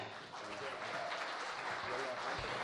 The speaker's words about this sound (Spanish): Eh, un aplauso para los Vega.